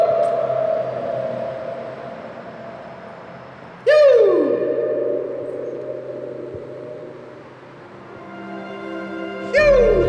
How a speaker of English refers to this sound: it's got a crazy reverb, and you'll hear as I enter the tunnel how it starts picking up